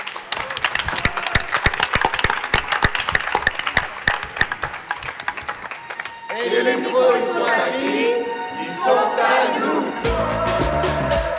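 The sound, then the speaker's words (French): A live audience at the Festival d'Avignon, in the Cloître Saint-Louis in Avignon, claps loudly and steadily for several seconds, then the applause gives way to a murmur of crowd voices and cheering before a different sound cuts in at the end. “Donc je vous demande encore une fois de les applaudir.”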